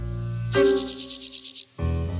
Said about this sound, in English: Grasshoppers and crickets sing. The crickets using their wings, and the grasshoppers use their legs to against their wing.